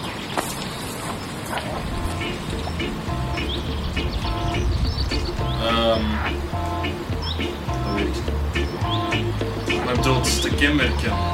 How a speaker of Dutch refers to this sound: Maar uh, ik hoor daar een, een soort vreemde groene kikker. Ik hoor ook de vink. Wat maakt het gezang van de groene kikker eh, zo?